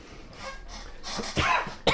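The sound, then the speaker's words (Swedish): A person who has had a bothersome cough in the throat for a long time coughs several times, harsh, raspy bursts coming in a short irregular run, the final cough sharp and loud. No one speaks. “Fan, jag är fortfarande så här jobbig hosta i halsen.”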